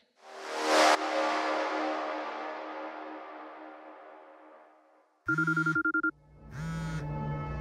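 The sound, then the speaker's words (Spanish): After a long, fading wash of noise, a telephone starts ringing: two loud, warbling electronic rings with a short pause between them, no voices. “No contesten. Déjenlo sonar.”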